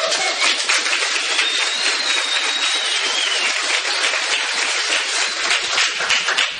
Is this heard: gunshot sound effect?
no